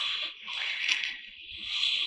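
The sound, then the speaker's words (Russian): A steady stream of liquid pours into a cup for about two seconds, a soft continuous splashing hiss that swells and eases slightly, with no voices. “Давай сюда, наливай.”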